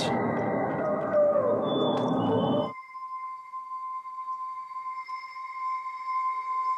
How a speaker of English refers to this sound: This is a vulture recording. This entered into the soundscape of hell. So we, we needed a palette for hell, something scary, disorienting. This is the vultures.